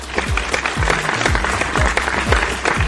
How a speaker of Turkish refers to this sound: Evet, Teşekkürlerimi sunuyorum. Katkınız, katılımınız, destekleriniz, gönderdiğiniz mesajlar için kocaman alkışı hak ediyorsunuz.